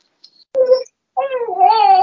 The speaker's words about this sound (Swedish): Hör barnskriket där i bakgrunden. Härligt!